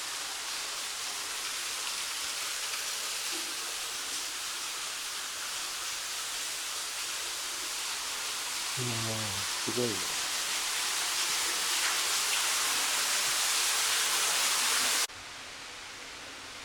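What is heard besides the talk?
waterfall rushing water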